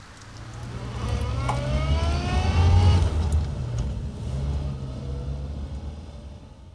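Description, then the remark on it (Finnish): A car engine revs up and pulls away as cars set off, its pitch climbing in rising sweeps over a steady low rumble, loud, then settling into a continuous driving drone. “Niin, niin, niin, autot liikkeelle.”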